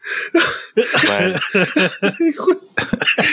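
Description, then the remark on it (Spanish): Someone coughs in a run of harsh, sputtering bursts, mixed with strained laughter, recovering from choking while laughing. The fits come in quick succession with brief gasps between. “hay, que, esperar, güey, a ver si tose, güey.”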